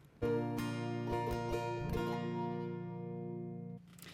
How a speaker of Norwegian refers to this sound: jeg tror det var det vi rakk av eh, bilprat, så nå kjører vi videre med enda en bilsang.